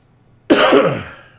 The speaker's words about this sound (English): Pardon me if I cough. Uh, still coming back for from being sick.